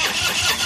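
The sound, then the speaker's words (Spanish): A motorcycle engine that has been parked all winter without being started cranks and sputters as it struggles to start, a brief, loud burst of rough grinding noise with no voices. “Tu moto después de todo el invierno aparcada sin arrancar suena así.”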